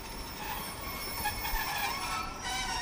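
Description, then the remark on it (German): A train rolls along the rails at Baden railway station in Switzerland with a steady, dense rumble and faint high-pitched wheel squeal, continuous with no voices. “Schienenklänge, Lokgesänge.”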